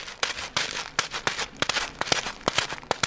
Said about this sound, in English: It is just a guy sticking a cell phone case in some rocks that he's holding in a rag in his hand. But it is also completely believable as footsteps on a gravel path.